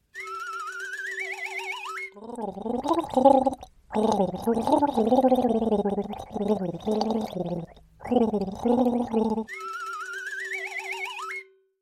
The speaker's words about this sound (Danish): skal vi ikke lige afsløre, hvad det var for en sang, jeg prøvede at gurpe før? Jo, det skal vi da. Vi kan lige prøve at høre det igen.